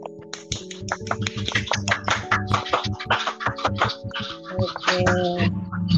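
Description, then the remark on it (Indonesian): A round of applause: several seconds of dense, uneven clapping with sharp, bright hand claps, moderately loud, over a steady low humming tone underneath. “Beri tepuk tangan dulu dong, applause tepuk tangan.”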